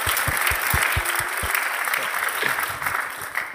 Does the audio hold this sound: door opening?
no